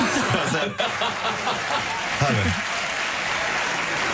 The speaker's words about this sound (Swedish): Applåder.